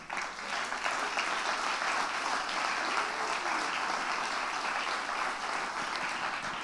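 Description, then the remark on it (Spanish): A church audience applauds for the Lord steadily, a dense wash of many hands clapping at a sustained, loud level for several seconds with no voices standing out. “¿No le da un aplauso al Señor?”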